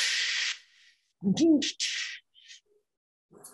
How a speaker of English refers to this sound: So that that was the internet modem, by the way. Oh, I remember. Oh, and that's I can't believe we don't hear that anymore because that was the worst sound. Oh, it's the worst. That, that dial-up connection.